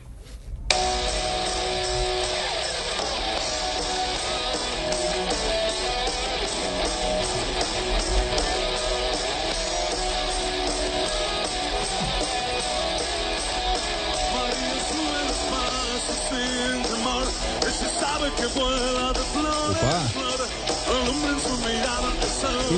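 A rock song plays loudly and steadily throughout, with a man singing over dense, driving guitars and drums.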